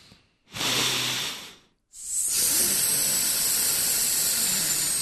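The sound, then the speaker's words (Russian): During a vocal breathing exercise, a person inhales, holds the breath, then makes a long hissing exhale through the teeth, like air escaping a punctured inflatable boat or car tire tube, with a short hiss first, a brief pause, then a sustained steady hiss. “Все, спускается колесо.”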